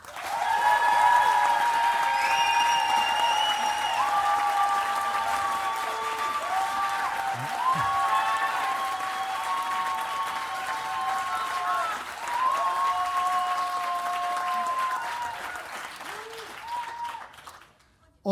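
An audience at a poetry slam applauds a performer loudly and steadily for about seventeen seconds, a dense wash of clapping with whoops and whistle-like tones riding on top, before it stops abruptly.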